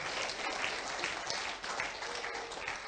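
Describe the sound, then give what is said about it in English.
A crowd applauds steadily, many hands clapping in a dense, continuous patter that stays fairly even in loudness throughout, with no voices standing out. “That's a good place to clap because some of you can't do it.”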